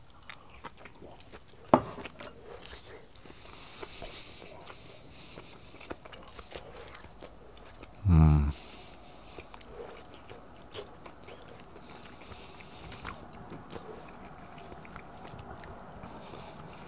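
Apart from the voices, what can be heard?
chewing food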